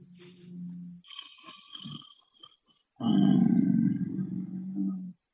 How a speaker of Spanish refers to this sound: ¡Está roncando.